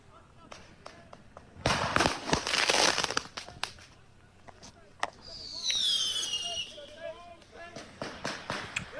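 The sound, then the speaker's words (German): Firecrackers fired directly into a group of people pop in scattered sharp bangs, then a dense burst of crackling, followed by a shrill whistling streak, with indistinct crowd voices and shouting in the background. “Der Klimaaktivist darf nach Herzenslust ballern und knallen.”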